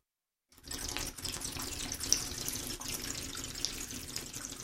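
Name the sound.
water running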